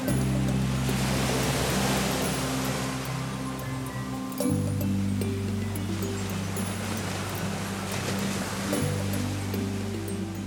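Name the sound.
ocean waves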